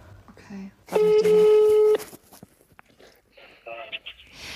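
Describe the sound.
A telephone call placed by clicking a call button goes through: a single steady, buzzing ring tone lasts about a second, loud and even-pitched, with quiet speech and small noises before and after it.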